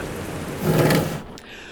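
A brief stretch of steady, hissing rain with a low rumbling swell in the middle before it eases off, heard on its own with no voices.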